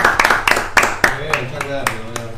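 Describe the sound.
A short burst of rhythmic clapping, sharp claps at a steady quick pace, with a voice rising over them partway through while the claps keep going.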